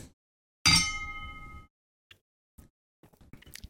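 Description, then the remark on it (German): Beer bottles clink together once in a toast, a bright ringing chime that fades over about a second, followed by a few faint small knocks and rustles. “Prost”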